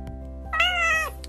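A single clear cat meow, about half a second long, rising slightly then trailing off, heard alone over a faint steady background hum.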